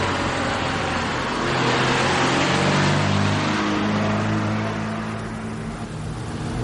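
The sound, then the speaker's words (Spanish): A car engine hums steadily as the vehicle drives through deserted city streets. Its low rumble swells and eases over a broad wash of road and tire noise; no voices are heard. “coche circula por las desiertas calles de la ciudad.”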